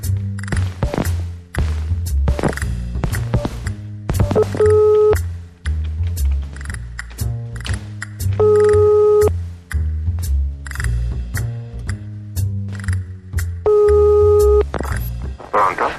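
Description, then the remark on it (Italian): A telephone number is dialed, then a line rings in three evenly spaced electronic tone bursts, with steady background music playing underneath throughout. “fai questo numero 32 3731”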